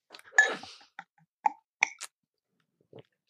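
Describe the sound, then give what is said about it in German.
A handful of short, bright clinks of beer bottles, including a Brewdog beer, tapping together in a toast, spaced irregularly over a few seconds, moderately loud, with a brief rustling knock at the start. “Äh, stoßen wir mal an, oder?”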